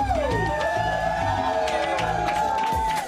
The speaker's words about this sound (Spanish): con aplausos.